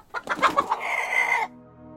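A chicken clucks several quick, choppy times, then lets out a longer drawn-out squawk before going quiet. The bird sounds fairly loud, with no talking.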